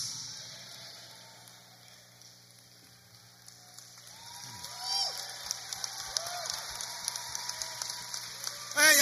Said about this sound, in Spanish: apláudele fuerte, dile Señor, yo quiero tu bendición